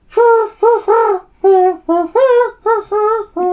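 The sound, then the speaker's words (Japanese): A voice imitates the cooing of an Oriental turtle dove, repeating short rhythmic hoots in grouped phrases, fairly loud, with brief pauses between each cluster of coos. “なんか俺やってると違くないえ、違う、これキジバトだよね。”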